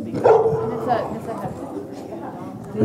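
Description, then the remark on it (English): Two dogs bark and yip playfully while playing with each other, with a few sharp bursts near the start and scattered excited yaps after, a voice murmuring faintly underneath. “those are two dogs just playing with each other.”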